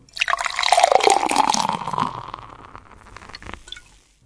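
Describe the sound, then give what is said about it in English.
Room-temperature soda pop is poured into a glass to imitate beer being poured, a steady gurgling stream whose pitch shifts as the glass fills, then tapering off into soft fizzing and a few last drips. “To pour the beer, we took a soda pop at room temperature and poured it into a glass.”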